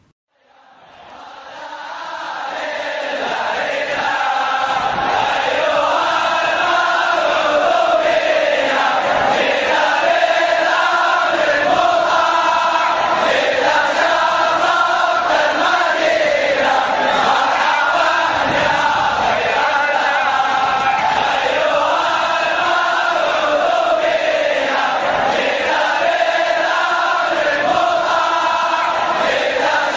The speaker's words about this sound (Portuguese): enquanto a gente ouve aí de fundo a torcida do Al Ittihad